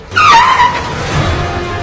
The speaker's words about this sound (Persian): میاد توی چهارراه حواسش نبوده چراغ قرمز بوده که میاد توی چهارراه یه دفعه ماشین لنکروز میاد محکم میزنه بهش